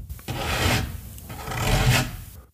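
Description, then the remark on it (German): Two slow, rasping scratch strokes drag across a wooden door, each swelling and fading, fairly loud with no voices. “Es klingt wie ein Kratzen.”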